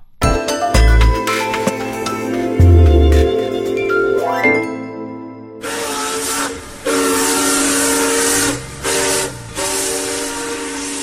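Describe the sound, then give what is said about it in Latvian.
A steam locomotive: tonal whistle blasts with low chugging thumps, then a loud, sustained hiss of escaping steam with a shrill whistle tone riding on top, cutting out briefly. “Vilciena skaņas var maigi ieejāt ceļā no Ziemeļ Eiropas līdz pat pašai Venecijai.”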